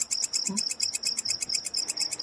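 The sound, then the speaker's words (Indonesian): A grasshopper chirps in a steady, rapid, continuous series of shrill, high-pitched pulses, with no voices and only a faint low rustle in the background. “Hei, pergi dari sini kau Belalang. Apa kamu tak punya sopan santun mengganggu tidur orang yang sudah tua?”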